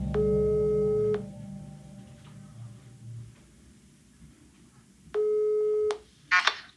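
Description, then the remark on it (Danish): Two steady electronic ringback tones of an outgoing telephone call, each about a second long, separated by a long silent pause, then a faint click as if the line is picked up. “Det sker over telefonen.”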